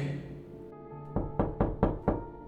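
Five firm knocks on a wooden bedroom door, fairly loud, arriving in a quick, slightly uneven rhythm after a brief lull with no voices; someone is knocking to call a younger sister down to eat lunch.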